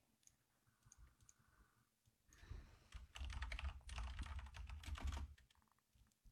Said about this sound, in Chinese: 打字太快了，真的是。你们说我打字怎么就这么溜呢？